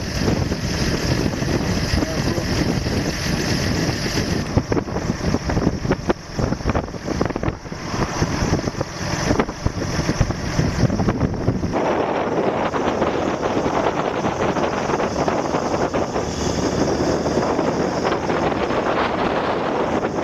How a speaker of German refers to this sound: Und so habe ich einen relativ frischen Beitrag von einem Tornado, da ist er, in Norddeutschland